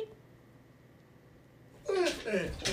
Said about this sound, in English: so I can't believe my dogs uh, hijacked the end of this particular session. Ooh, you want to say hi?